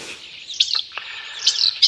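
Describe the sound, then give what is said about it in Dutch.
Common starling song: a busy run of high whistles, buzzy trills and clicking chatter in two bursts, with no voices. “Ja, en de laatste, dat is deze. Dat is, dat is een beetje een luiaard dan, denk ik, hè? De spreeuwen.”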